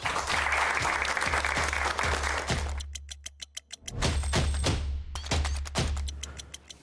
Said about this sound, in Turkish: Arkadaşlarımız da alkışlarla başlatalım yani.